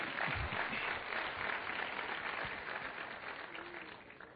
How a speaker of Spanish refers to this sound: hubiera deseado que ni me aplaudieran porque lo que sigue no, no está todavía tan bueno.